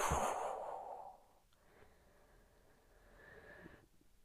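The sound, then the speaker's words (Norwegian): A long, slow breath pushed out through the mouth during a guided breathing exercise, after the breath is held. It is breathy and fades over about a second, then a quiet pause with only faint hush. “Og pust ut.”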